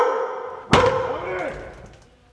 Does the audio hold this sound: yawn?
no